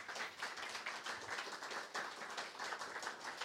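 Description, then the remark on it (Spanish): A church audience applauds sisters who have made their public profession of faith, many hands clapping into a dense, bright, continuous wash of sound that holds an even level for several seconds without any voices. “Mi hermano, un fuerte aplauso para mis hermanas”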